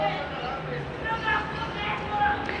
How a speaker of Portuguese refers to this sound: Vocês estão ouvindo uns gritos? Eu estou ouvindo de longe uns gritos e Começou uma briga, meus amigos, então nesse momento.